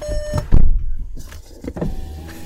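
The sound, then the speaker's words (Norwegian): A car's power window motor whirs steadily for a couple of seconds, with low mechanical rumble and a few clunks as the glass moves, inside the vehicle. “Vinduer.”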